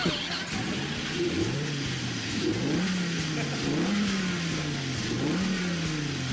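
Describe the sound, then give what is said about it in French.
A Peugeot car engine, in an advertisement, accelerates hard, its pitch climbing and dropping back several times as it shifts up through the gears. The loud, steady roar continues without any voices. “Que faire T'inquiète pas, je vais t'y conduire avec ma Peugeot grosse couille.”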